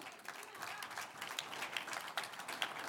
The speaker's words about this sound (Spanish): Un aplauso al que viva.